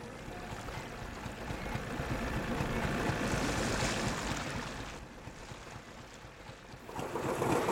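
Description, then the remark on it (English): A steady wash of water sloshing and lapping around a search team's boat on the Yangon River in Myanmar while a diver is below the surface, with a constant low engine-like rumble and breezy hiss, swelling slightly midway and again at the end. “From the moment the diver disappears below the surface, a cloud of anxiety descends on the boat.”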